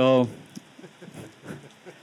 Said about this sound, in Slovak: Dobrý večer. Je ma počuť aj tam vzadu, aj cez ten dážď.